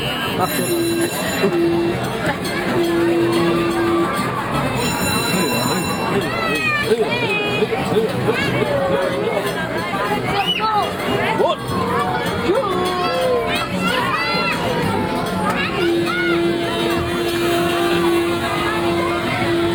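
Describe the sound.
Crowd ambience at the Baroque Christmas market in Ludwigsburg, Germany: a dense, steady hubbub of many overlapping voices, with occasional sustained tonal notes rising above the chatter throughout.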